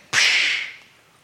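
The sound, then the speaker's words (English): A single sharp whip crack snaps out loud, its bright hissing tail fading over about half a second into quiet, as a master whips a man in a film scene. No voices accompany it. “Every time he got hit, I wanted it to stop. Whoosh. The master kept hitting him.”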